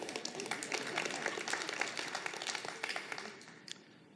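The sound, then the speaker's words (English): An audience breaks into applause, many hands clapping in a dense, crackling patter that holds steady for a few seconds before thinning out and fading away at the end. “Yeah, that's a clapping point.”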